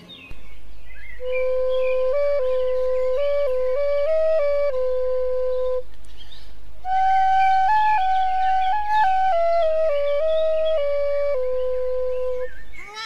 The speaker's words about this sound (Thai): หมาป่าได้ตอบตกลงตามข้อร้องขอและได้เป่าปีให้ลูกแกะฟัง